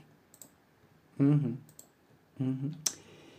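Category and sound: machine, computer mouse clicking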